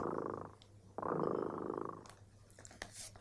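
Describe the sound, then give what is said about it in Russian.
A cat, Kot Dremota, purrs in steady, rumbling waves, a soft low drone that swells and fades with each breath, followed by a few faint rustles and clicks. “Слышите? Кот дремота опять запел свою песенку.”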